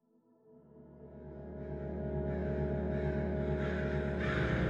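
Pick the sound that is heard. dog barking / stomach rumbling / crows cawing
crows cawing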